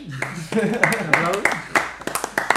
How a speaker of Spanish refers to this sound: Este aplauso es de corazón para vosotros.